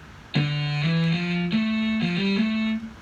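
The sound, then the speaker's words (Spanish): An electric guitar played through an amp simulation picks out a short, slow melody of about six sustained, harmonically rich notes, loud, with no one talking. “Si yo le pongo un amplificador,”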